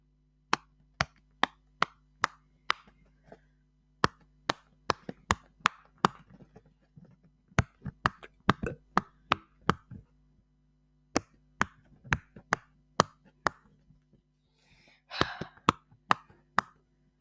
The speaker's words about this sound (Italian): I Poppit sono uh, delle forme uh, che praticamente sono delle forme con delle bolle, con, delle bolle che si possono schiacciare. Aspettate, vi devo far sentire.